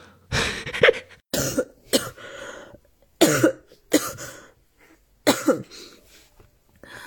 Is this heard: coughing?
yes